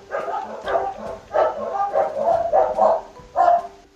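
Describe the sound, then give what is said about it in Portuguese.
Dogs bark in a steady series of sharp, repeated barks, about a half-second apart and fairly loud, continuing for several seconds with no clear talking. “Só para deixar claro, nossa, eu tô falando e eles continuam latindo, gente.”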